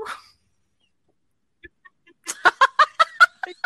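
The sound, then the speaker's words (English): A person imitates a hound dog barking: a quick, rhythmic run of about seven short, throaty barks, fairly loud, following a moment of near silence. “I always just go, "I'm a hound dog." Arr, arr, arr.”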